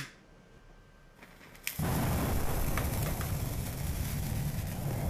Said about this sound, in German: Wir stellen uns den Urknall meistens als gewaltige Explosion vor. Ungefähr so.